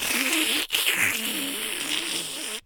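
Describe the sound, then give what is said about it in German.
A voice imitates a dentist's saliva suction: a steady gurgling hiss with a low buzzing tone, held for about two and a half seconds with one brief break near the start. “dieser Sauger, mhm.”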